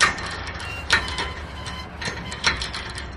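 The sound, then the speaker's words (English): A metal storefront security gate rattles and clanks as it is pulled down, with sharp metallic clacks every second or so over a steady rolling clatter, loud, with no voices. “everything from like the little storefront guards that people pull down at night that are really annoyingly a lot too loud.”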